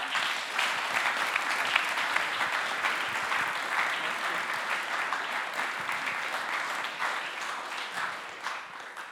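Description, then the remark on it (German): An audience applauds steadily for about nine seconds, a dense, even wash of many hands clapping at a constant level that tapers slightly near the end. “Ein Applaus.”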